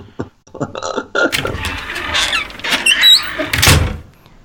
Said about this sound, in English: We have a little dungeon door over here in the closet that's under the carpet. We got to pull it up. Give me a minute. Here we go.